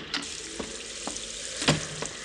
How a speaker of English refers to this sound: This time it was night and rain, and the sounds of desolation that only the wind and the sea can shape.